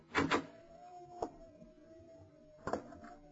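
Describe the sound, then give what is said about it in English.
A door handle rattles with a pair of quick clunks as the door is tried, then a single knock-like click, and a final latch clatter as the door swings open, moderately loud. “Try the door, Lamont.”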